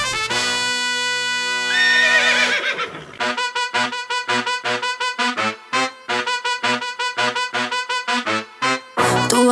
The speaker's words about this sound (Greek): Πάμε τώρα να ακούσουμε ένα τραγούδι ενός άλλου συναδέλφου